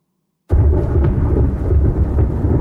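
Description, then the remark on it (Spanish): After a brief moment of silence, a thunderstorm bursts in: loud, deep rolling thunder rumbles continuously over a steady hiss of rain, heavy, with no voices. “Es el silencio que precede a la tormenta.”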